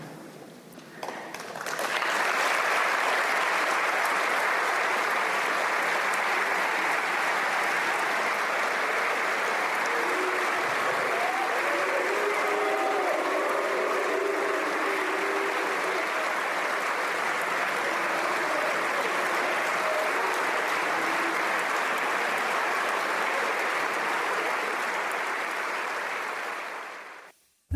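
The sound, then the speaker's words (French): Sustained applause from standing deputies in the French National Assembly after a statement of solidarity with Israel, dense and steady for nearly half a minute after a quick rise, with faint voices murmuring beneath the clapping before it cuts off abruptly. “Ils se lèvent, certes, mais ils n'applaudissent pas.”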